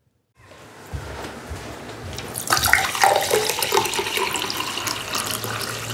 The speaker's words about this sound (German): Das war Getränk einschenken